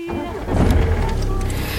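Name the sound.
car driving away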